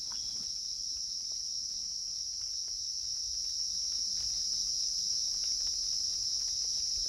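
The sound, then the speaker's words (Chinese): A steady chorus of insects chirping, a continuous high-pitched shimmering trill that holds evenly for the whole stretch, with faint low rustling underneath and no voices. “为什么松涛虫鸣这些自然白噪音会有安抚身心的作用”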